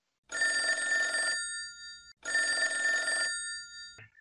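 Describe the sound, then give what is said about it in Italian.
Two long rings of a telephone on an outgoing call to an interview guest, an actor and voice actor, each a bright buzzing tone about a second long with a pause between, then a click as the line is picked up. “Chiamiamolo”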